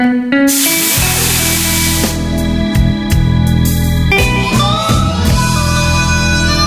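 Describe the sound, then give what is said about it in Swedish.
A loud, sustained hiss of steam rising as water hits a hot sauna stove, filling the space for several seconds with a rushing, spraying texture and faint crackles, no voices. “Ska vi inte hälla på lite vatten till på aggregatet? Det gör vi, så man får lite ånga.”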